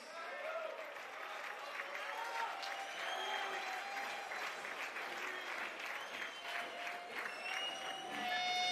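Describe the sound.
A crowd applauds steadily for several seconds, dense clapping holding an even level throughout, mixed with scattered cheers and voices, swelling slightly at the very end.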